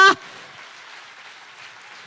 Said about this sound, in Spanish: Y si ese eres tú, si ese eres tú, yo quiero que aplaudas bien a Dios ahora.